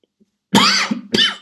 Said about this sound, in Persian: اخ ببخشید سرفه کم صرفه تو میکروفون خیلی بعدا تو هدفون گوش آدم و درد میاره بلا سر خودم اومده پادکست خودم گوش دادم عذرخواهی میکنم